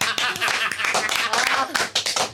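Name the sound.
scout-style rhythmic clapping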